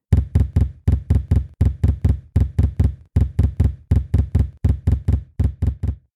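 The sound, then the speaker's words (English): Heavy, booming knocks pound against the walls of a house in rapid groups of three and four, rattling them, repeating steadily with brief pauses between bursts, loud with no voices. “Bobby slumped to the floor beneath the window, out of view, as the thumping rattled the walls.”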